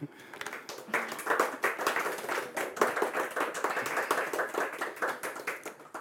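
Steady audience applause, many hands clapping in a dense, continuous patter that holds at an even loudness for several seconds, with no one speaking over it.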